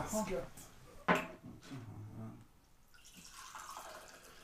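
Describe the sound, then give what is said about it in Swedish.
Coffee is poured into a cup: a sharp clink of crockery, then a soft, steady liquid trickle and splash, with faint voices murmuring underneath. “Jag tar kaffe här nu. Det är därför det låter Jag vill också ha en.”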